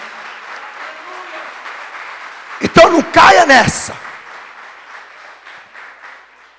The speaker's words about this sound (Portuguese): Vamos aplaudir a Jesus.